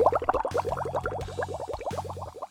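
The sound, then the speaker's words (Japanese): A sinking sound effect of bubbling water with a steady stream of rapid gurgling bubbles over a low, droning underwater hum, moderately loud, with no voices. “はい、じゃあね、えー、海底に沈めましょうかね。”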